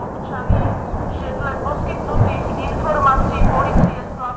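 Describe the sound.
Several deep, muffled booms from a series of explosions at an ammunition depot, as witnessed from the village of Vlahovitsa, roll one after another at irregular intervals over a constant low rumble, the ground shaking, with faint voices murmuring in the background.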